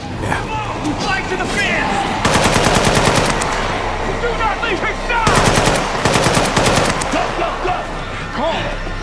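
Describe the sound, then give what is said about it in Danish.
Two long bursts of rapid automatic gunfire from homemade weapons as a group runs out and opens fire, loud and rattling, separated by a brief lull, with shouting voices and chaotic background noise throughout. “Og i det, de løber ud, så bliver alle de her hjemmelavede våben jo så taget i brug”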